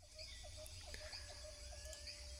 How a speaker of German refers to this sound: Hören wir immer noch das Grillenzirpen? Ich höre das, aber ich gehe trotzdem runter.